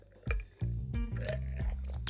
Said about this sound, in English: I'm sipping and I'm venting. Sipping on the water and just venting to you guys.